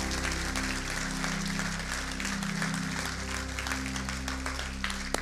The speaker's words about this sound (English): Come on, let's give the Lord a big hand clap for those decisions.